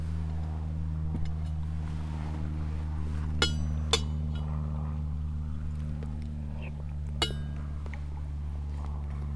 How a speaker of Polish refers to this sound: Samolot nam sobie robi tutaj tło, a my sobie zjemy zupę.